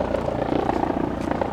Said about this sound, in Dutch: Ondertussen vliegt er een helikopter over.